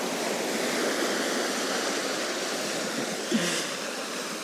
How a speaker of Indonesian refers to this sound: ombaknya men kenceng banget kayaknya gue harus bawa pakaian double kalau ke pantai